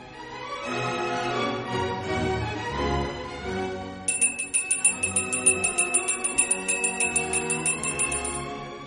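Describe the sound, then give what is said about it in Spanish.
Partway through, a bright, high bell starts ringing in quick, steady repeated strikes, clear and fairly loud over a dark, sustained musical background that plays throughout. “Cuentan que todos los 31 de octubre, en el silencio de la noche, se oye un sutil ruido, como el tañido de una campana y el pesado caminar de un encapuchado.”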